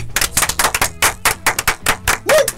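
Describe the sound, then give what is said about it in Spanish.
A short burst of applause: sharp, crisp hand claps in a quick, slightly uneven rhythm, about a dozen in under three seconds, fairly loud with no voices over them. “Esto se aplaude.”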